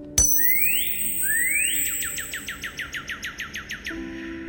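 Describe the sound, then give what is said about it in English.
Cardinal birdsong coming out of a ring when it is tapped: two long rising whistles, then a quick, even string of about a dozen sharp downslurred chips, clear with no voices. “It's the sound of a cardinal.”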